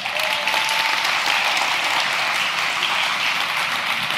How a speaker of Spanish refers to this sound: ¿Cuántos le pueden dar un aplauso a Dios por eso?